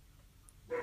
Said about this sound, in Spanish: ese es mi perro que ladra por los deliveries. Eh, porque le molestan los, ruidos de las motos. Es muy guardián, pobrecito, muy chiquito.